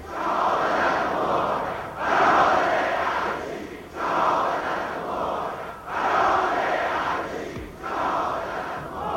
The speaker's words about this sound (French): Les manifestants passent dans les rangs des fidèles en scandant des slogans